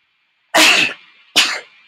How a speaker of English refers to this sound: oh, sneezes. Bless you. I'm gonna leave that in there because that's whoa. Yeah. Sorry, guys. I am fighting off a slight cold. It is not the Rona. It's just a minor sinus infection.